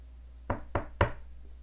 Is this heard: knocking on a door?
yes